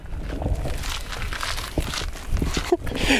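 Footsteps crunch across gravel in a steady, uneven rhythm, fairly loud, with scraping grit between steps and a brief sharper knock near the end, as people walk back to a car.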